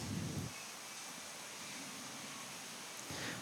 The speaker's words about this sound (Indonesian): Jadi misalkan ini kayak sekarang sedang saya bikin podcast ini, kondisi di luar itu sedang hujan dan sepertinya ada suara-suara hujan yang sedikit terekam. Nah, itu disebutnya adalah noise.